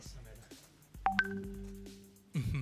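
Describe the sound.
A WhatsApp message notification sounds as two quick rising electronic tones that ring out briefly and fade, as videos are being sent to the open app. A person starts talking just afterward.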